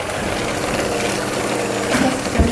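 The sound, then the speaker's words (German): An electric mixer whirs steadily, whipping powdered sugar, eggs and vanilla sugar until foamy, with a constant motor drone and a thick, churning hiss, rising slightly in intensity near the end. No one speaks. “Den Zucker, die Eier und den Vanillezucker müssen wir jetzt schaumig vermixen.”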